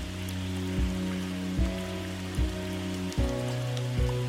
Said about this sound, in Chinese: 今天是没有阳光的午后，就跟你聊一聊下雨天。